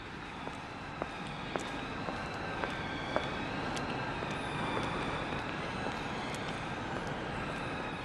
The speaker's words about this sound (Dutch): De echte Rotterdammer heeft het geluid van de roltrap, de piepende roltrap die 17 meter moet overbruggen om naar beneden te gaan en je naar 20 meter diep brengt. dat is dus de Maastunnel.